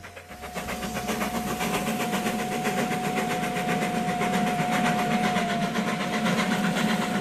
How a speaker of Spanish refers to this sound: No fue hasta que el ferrocarril empezó a echar vapor, no fue hasta ese momento cuando se planteó la necesidad de controlar el tiempo